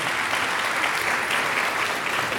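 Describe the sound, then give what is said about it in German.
An audience applauds a speaker's statement with a dense, steady wash of clapping that stays loud and even throughout, with no voices standing out. “klatschen Sie gerne, auch besonders zu solchen Aussagen.”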